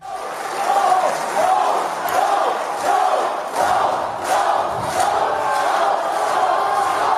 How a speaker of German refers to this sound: Die Leute äh, gehen da total mit. Die rufen Lauch, Lauch, Lauch. Ja, Lauch.